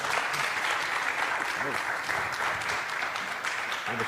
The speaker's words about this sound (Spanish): Podemos darle un fuerte aplauso.